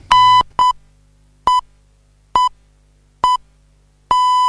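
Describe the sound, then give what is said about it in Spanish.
An hourly time signal: a series of short, mid-pitched electronic pips spaced about a second apart, ending in a longer sustained beep at the same pitch. No voices. “Este sonido alerta que ha comenzado una nueva hora.”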